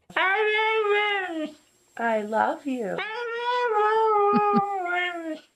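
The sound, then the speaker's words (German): Mischka, a husky known on YouTube as the Talking Husky, howls and yowls in three drawn-out, wavering phrases that mimic the rhythm of human speech, loud, with brief pauses between them. “Zum Beispiel Mischka, der ist ja schon ziemlich famous, dieser Talking Husky auf YouTube.”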